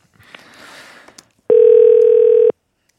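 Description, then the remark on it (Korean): Soft rustling noise, then a single loud, steady telephone dial tone that hums evenly for about a second before cutting off abruptly, as a radio host places a call to a listener. No one speaks. “자, 그러면 이 급떠난 강릉 여행 지금쯤은 어떻게 진행이 됐을지 이분께 전화 한번 걸어보도록 하겠습니다. 예, 걸어봅니다.”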